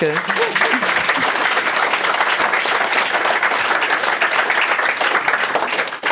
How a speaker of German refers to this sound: Du bist äh, als Musikerin ja so Umgebung auch gewöhnt, oder? Applaus, Leute drumherum.